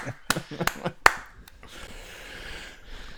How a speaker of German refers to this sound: Clap, clap, clap.